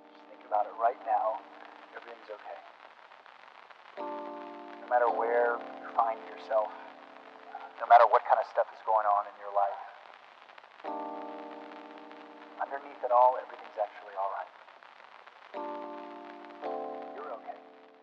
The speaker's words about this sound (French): Bref, j'en ai beaucoup trop dit, je vous laisse avec le générique et je vous dis à tout de suite.